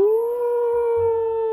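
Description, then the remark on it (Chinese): A voice imitates a wolf's howl, 'Ao!', for Steve, a young wolf in a children's story who howls nonstop as classmates arrive at school: one long, steady, mid-pitched note held without a break for over a second, loud and clear, with a faint low rumble underneath. “在同学们陆续来到学校的时候，他不停地嗷叫：“嗷，”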